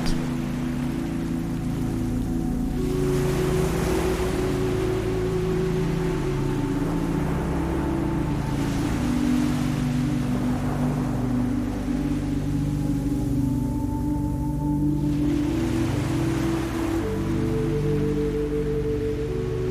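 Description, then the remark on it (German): Ocean waves at an island wash in slow, steady surges every few seconds, a soft continuous hiss swelling and fading, layered over a low, sustained humming drone with no voices. “Du lauscht noch eine Weile weiter den Wellen.”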